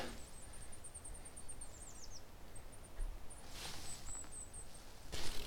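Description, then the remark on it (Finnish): Thin, high-pitched calls from small songbirds in a mixed flock of tits, willow tit among them, come in quick scattered runs over a quiet outdoor background with occasional rustling footsteps. “Oliko toi hömöttiäinen? Eikö toi ole hömötiäinen?”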